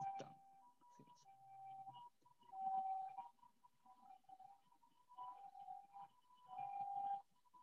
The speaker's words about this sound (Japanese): サイレンが。サイレンが近づいてきてますね。